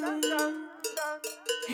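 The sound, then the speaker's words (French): Cowbells tied around the necks of a farmer's cows, heading out into the fields, clank in an uneven rhythm, about four or five bright metallic strikes, each leaving a ringing tone that overlaps the next. No voices are heard. “le paysan est venu, il a pris les belles cloches, il les a attachées au cou de ses vaches, et il est parti dans les champs.”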